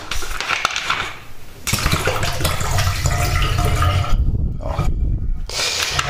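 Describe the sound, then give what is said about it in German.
Old flat soda with hardly any carbonation left is poured away, glugging out of a bottle into a sink in a steady splashing pour lasting several seconds with a couple of brief breaks, no voices. “Aber die kann ich wegkippen, weil da ist kaum noch Kohlensäure drin.”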